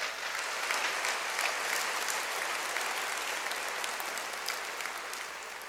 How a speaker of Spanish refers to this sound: Dale palmas a rey entonces, por favor, apláudele, apláudele fuerte.